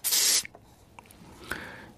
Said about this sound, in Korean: 이게 뭔 소리죠? 아, 스프레이 뿌리는 소리인가